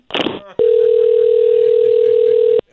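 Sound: telephone dial tone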